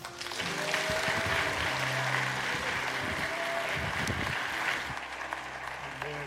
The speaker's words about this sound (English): So I want you to help me to give a big round of applause to one of our most esteemed leaders and elders